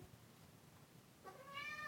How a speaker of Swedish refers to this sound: Nu kommer en katt och vill någonting.